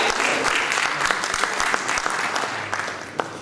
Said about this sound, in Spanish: Un aplauso, por favor. ¡Más entusiasta!